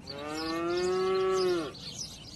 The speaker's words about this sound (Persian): صداهای طبیعت تو گوشم میپیچید آواز گنجیشکا ماغ کشیدن یه گاو که معلوم بود حسابی از گرما شاکیه